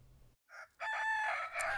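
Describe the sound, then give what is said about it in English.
A rooster crows once on a farm in Colorado where chickens are used to till the soil, a short rising note opening into a loud, drawn-out cock-a-doodle-doo, with no talking. “The Owl Tree Farm uses chickens to till their soil so machines don't have to.”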